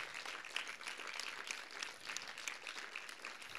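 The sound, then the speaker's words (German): A church audience applauds steadily, a dense wash of many hands clapping at an even, sustained level with no voices standing out. “Lass uns dir nochmal einen Applaus geben, jetzt wo ihr die ganze Story kennt.”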